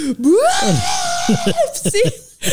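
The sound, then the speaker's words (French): A voice imitates a terrified scream: a loud, high-pitched wail that rises and holds for over a second, then breaks into a few short vocal bursts. “Puis là, mais je te lâche un cri de mort.”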